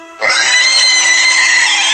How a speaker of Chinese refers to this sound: 有东西在我面前嚎叫起来，我瞬间感觉尿失禁了。我站到了猪的面前，在我模糊的视线中，它是黑暗的来源，一个巨大的、肥硕的生物。